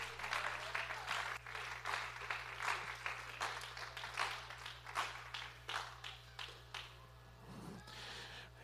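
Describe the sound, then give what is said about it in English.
An audience claps hands in praise to the Lord at a night service, a dense, steady burst of applause lasting several seconds over a low electrical hum, with a brief voice near the end. “Can we give the Lord a hand clap of praise here tonight?”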